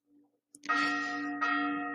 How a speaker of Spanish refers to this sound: Perdón si se escucha las campanadas, ya casi viene la misa, entonces hay una disculpa, ¿verdad? Espero se callen rápido.